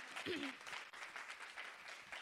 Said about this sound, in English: Let's give God a hand clap this morning for his word. Amen.